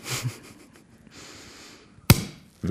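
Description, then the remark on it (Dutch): A champagne bottle is opened: the cork pops once with a sharp burst, following a soft fizzy hiss, then a brief rush of foaming afterward; no one speaks. “En dat doe je eigenlijk op dezelfde manier als dat je een imperial eh, opent.”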